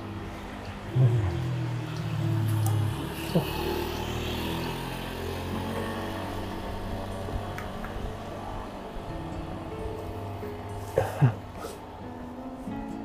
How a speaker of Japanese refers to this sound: あれですね、ヤクルトのバイクでしたね。あ、結構音でかいですね。ヤクルトの三輪車みたいなね、バイク。